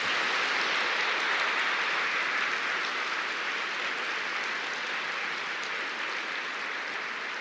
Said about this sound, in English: And if I could, I'd love to have a round of applause for all of these people who put this event together.